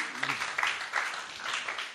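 Audience applause: a dense, steady wash of many hands clapping at moderate volume, with no clear individual beats and no voices standing out.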